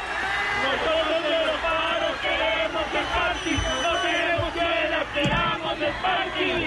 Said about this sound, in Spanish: Acaban de unirse las universidades privadas. Impresionante. Escuchemos, por favor, la arenga de los estudiantes de la sabana.